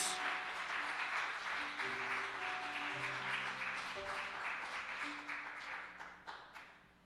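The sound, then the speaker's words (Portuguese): A church audience applauds the Lord during a Portuguese-language service, a dense roar of many hands clapping steadily for about six seconds. It thins out and fades at the end, with sustained keyboard chords held underneath. “Posso ouvir um amém e se aplaudir o Senhor em nome de Jesus?”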